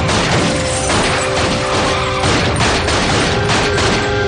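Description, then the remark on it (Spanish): A rapid, repeated volley of loud gunshots as a man fires again and again at a fleeing car, the cracks sounding over a constant dense roar, the bursts crowding together with no pauses between them and no voices. “Derek le persigue disparando a discreción.”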